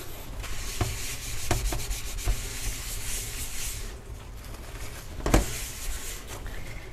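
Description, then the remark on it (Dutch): Steady rubbing and smearing against a pan as it is greased with olive oil, a soft continuous scraping broken by a few sharper knocks and taps, with nobody speaking. “ik ga koken. Mijn stem was een beetje laag, eh, hoog, wow, ah, whatever. Ik ga mijn pan insmeren met eh, olijfolie”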